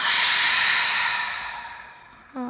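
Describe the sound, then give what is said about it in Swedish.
A long, breathy exhale through the mouth, emptying out the air after a deep breath that filled the belly at the end of a meditation, a soft airy rush that slowly fades over about two seconds, followed by a brief voiced sound at the end. Fairly quiet. “Och andas ut, töm ut luften genom munnen”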